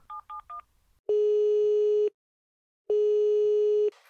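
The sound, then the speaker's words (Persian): A phone number for a throat specialist's office is punched in with three quick beeping keypad tones, followed by two long, steady ringing tones with a pause between them as the doctor's office is called. No one speaks. “با مطب اون دکتر تماس گرفت.”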